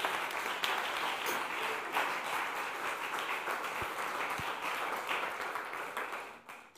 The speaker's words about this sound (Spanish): Denle un aplauso. Venga.